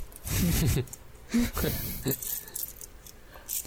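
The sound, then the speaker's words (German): Small metallic clinks and jingles of loose coins shaken in a wallet, scattered across a few seconds, with short bursts of voice sounds in between. “Kleingeld im Portemonnaie klingt ein bisschen falsch”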